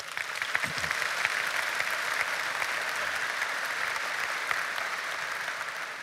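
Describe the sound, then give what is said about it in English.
A Lake Point crowd claps steadily for several seconds, a dense, sustained wash of applause from many hands, with no voices standing out, welcoming new partners in Beijing, China, Haiti and Vietnam. “Would you give a Lake Point welcome to our new friends?”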